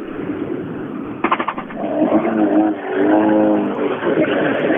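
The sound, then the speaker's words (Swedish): A rally car engine, on a car nearly wider than it is long, revs repeatedly. Its throaty tone climbs and drops in loud bursts after a brief sputtering rattle, with no one talking over it. “Den låter också alldeles för bra för att inte tävla med.”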